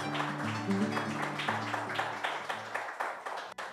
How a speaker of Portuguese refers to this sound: Recebendo esses aplausos maravilhosos, né?